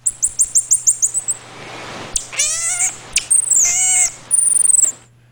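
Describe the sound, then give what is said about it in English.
A marmoset singing to its owner lets out a series of high, whistling, bird-like calls: a quick run of short chirps, then longer wavering squeaks and trills, fairly loud, with no talking. “That was indeed a marmoset singing to its owner.”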